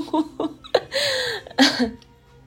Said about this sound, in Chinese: 我又想打嗝，每一次想打嗝，我后来在听这个声音的时候，总感觉自己想哭。